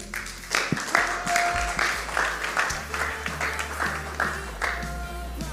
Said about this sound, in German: Wenn du heute das allererste Mal im CZD bist, dann möchte ich dich ganz besonders nochmal willkommen heißen und dieser Applaus gehört dir.